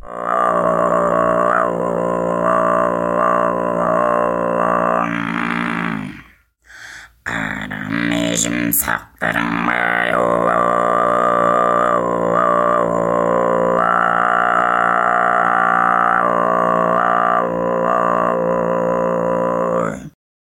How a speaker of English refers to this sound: In Kargyraa, this undertone is an octave below the fundamental frequency. So, bottom line, what I'm saying is Kargyraa is really, really low pitched.